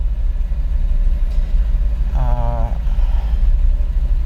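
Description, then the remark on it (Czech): A small Babetta moped engine idles with a steady, loud low rumble throughout, and a brief warbling tone rises over it partway through. “Mnohem menších rozměrů než auto, zaplať pambu. Na auta už prostě místa nejsou a peníze taky ne ale spadla mi babeta.”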